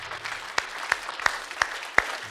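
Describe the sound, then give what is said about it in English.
An audience at a church service applauds the Lord after a prayer, a steady wash of many hands clapping with a few sharp claps standing out in a regular rhythm, about three per second. “Can you give the Lord a hand?”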